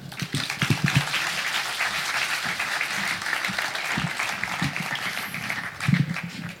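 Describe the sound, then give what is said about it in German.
An audience applauds steadily for several seconds, a dense crackle of many hands clapping at an even level, with a slightly louder swell near the end. “Na gut, also dann viel Spaß und kleinen Applaus auch bitte.”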